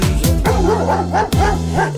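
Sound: dog barking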